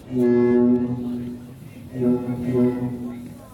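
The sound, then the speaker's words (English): The horn of the Knight Bus, standing outside a cafe: a deep, brassy horn honks twice, each blast held for nearly a second with a short gap between, loud. “The Knight Bus stands outside the cafe. It has three sounds the horn”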